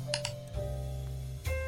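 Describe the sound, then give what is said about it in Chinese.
Slow, sparse typing on a computer keyboard: a few crisp key clicks at uneven intervals, two quick ones, then a pause before another, over a steady low hum. “手指慢吞吞地在键盘上敲击着。有一搭没一搭的发出哒哒的声音。”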